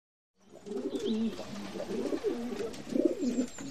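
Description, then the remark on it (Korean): Pigeons nesting inside a juniper tree coo continuously in low, throaty, rolling phrases, several overlapping calls repeating with a steady rhythm, and a faint higher chirp drifting in the background. “향나무 속에는 비둘기가 둥지를 틀고 있었다. 그래서 그렇게 비둘기 소리가 컸었다.”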